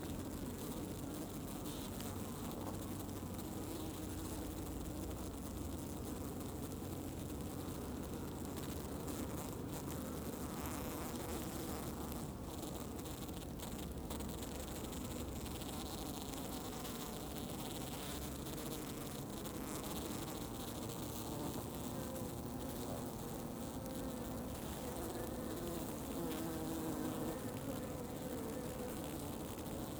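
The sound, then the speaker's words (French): A honeybee swarm in flight buzzes densely and continuously, a steady droning hum threaded with fine crackling and occasional higher whines, with no voices throughout. “Voilà, on vient d'entendre le bruit du vol.”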